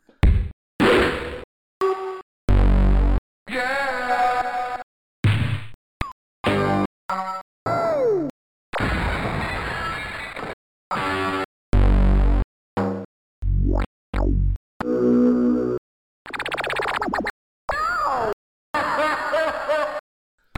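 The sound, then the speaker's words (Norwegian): A rapid-fire string of short retro shareware video game sound effects, with thwacks, whooshes, bangs, groans and warbling pitch sweeps, each loud and separated by brief gaps of silence. “Og noe av det er jo åpenbart lyd, lydeffektene.”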